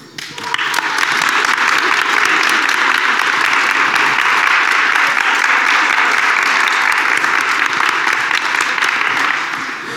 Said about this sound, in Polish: Chciałbym, byśmy powitali, to może być nawet standing ovation, bo nie często zdarza się taka okazja,